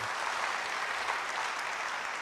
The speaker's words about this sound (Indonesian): Yang setuju tulus beri tepuk tangan bagi dia.